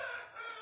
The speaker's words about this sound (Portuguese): É o galo. Esse galo é uma comédia, mano. Esse galo ontem ele partiu pra briga comigo. É doido mesmo, doido pra morrer.